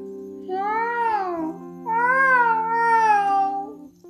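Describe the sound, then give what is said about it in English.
Two drawn-out, wavering meows, the second longer and rising then falling, sung by a human voice imitating a cat, fairly loud over a low steady hum. “But then she heard the meow again.”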